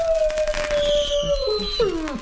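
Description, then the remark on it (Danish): A firework's long whistling tone slides slowly downward while faint crackles and pops from other fireworks sound in the background, steady and moderately loud, with no talking. “Hold kæft, for noget fyrværkeri, det kan jeg altså bare noget.”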